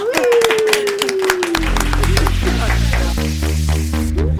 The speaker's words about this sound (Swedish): Du får också en applåd tycker jag.